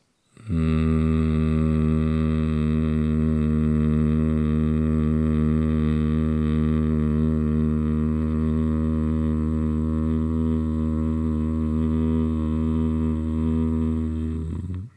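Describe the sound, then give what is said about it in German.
A steady, low-pitched nasal hum like a buzzing bee, made by breathing in through the nose and then breathing out through the nose with a bee tone, sustained evenly for about fourteen seconds on one long exhale, with no talking. “mit einem Bienensummen, kannst du es dir vorstellen, wieder auszuatmen”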